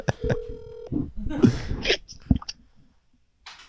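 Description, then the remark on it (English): Electronic telephone keypad tones beep as someone dials a call, a couple of quick presses and then one longer held tone, followed by brief clattering, breathy noises and a faint hiss at the end. “I'm gonna call him.”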